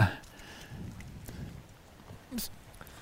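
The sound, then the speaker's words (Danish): Heavy rain falling at a fishing spot in a dense, hissing patter, with a few sharper crackles and a brief louder burst near the end, fairly soft overall. “nu er det rigtig regn. Nu kommer der rigtig regnvejr.”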